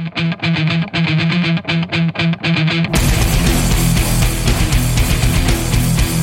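Heavy metal track with distorted guitars: a choppy, stop-start riff of short rhythmic bursts, then at about three seconds the full band crashes in with a dense, loud wall of sound.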